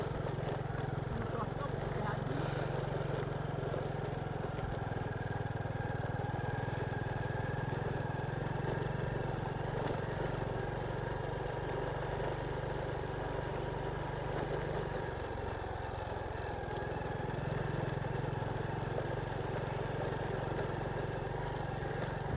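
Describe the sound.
A motorcycle engine runs steadily while riding, a continuous low drone with a slight dip in pitch midway, mixed with wind rush and faint background voices.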